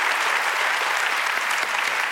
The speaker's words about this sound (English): I just was telling the audience what a great brother I think you are. And I think you deserve a round of applause for being such a great brother.